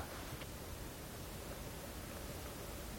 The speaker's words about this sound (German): Ja, stimmt, das ist der Schnee. Das ist der Schnee auf unseren Jacken, oder?